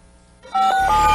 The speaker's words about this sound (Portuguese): Eu vou, deixar, vou passar a vinheta aqui para você anotar o, o, o telefone aqui, o, o número do WhatsApp do Estudo do Ar.